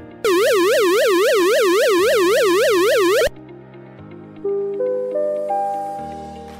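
A loud electronic flood early-warning danger siren warbles rapidly up and down for about three seconds and cuts off abruptly, followed by a quieter sequence of rising, stepped electronic tones. It sounds when river water passes the danger level and residents must evacuate immediately.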